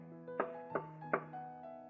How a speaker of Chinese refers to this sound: 屋里的声音太吵了，吵到邻居没有办法休息。这个时候，小丽过来敲门